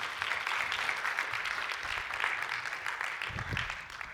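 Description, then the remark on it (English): A crowd applauds steadily, a dense wash of many hands clapping at once that holds at an even level for several seconds, without any talking over it. “Can we get a round of applause for Cheryl as well?”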